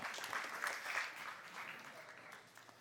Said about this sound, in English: give her a hand.